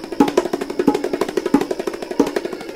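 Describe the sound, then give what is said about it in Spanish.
A drum pounded hard and fast, roughly twenty loud, punchy strikes in under three seconds with a steady rapid rhythm and a deep, booming body, no voices. “Empezó a pegarle al tambor con toda su fuerza.”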